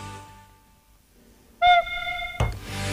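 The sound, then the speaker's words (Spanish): A single flute note sounds loud, held steadily for almost a second after a breathy attack, then stops abruptly with a soft thump. “Que es interpretando, bueno, no interpretando, simplemente tocando una notita, una notita que suena así.”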